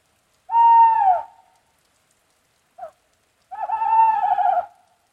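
An owl hoots twice in long, quavering calls separated by a brief soft note, heard close and clear against an otherwise silent background with no voices.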